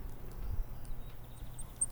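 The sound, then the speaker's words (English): A few very high, thin, faint bird notes from a blackpoll warbler in a garden early in the morning, spaced out in a short series over a low background hum, with no talking. “Hear that? Yeah. What is that? It's the blackpoll warbler.”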